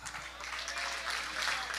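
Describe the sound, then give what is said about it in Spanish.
A crowd claps steadily, a dense, continuous patter of many hands that holds at an even level for a couple of seconds, sounding like an audience applauding. “Dele ese aplauso a la gentileza de Dios a la caballerosidad de Dios.”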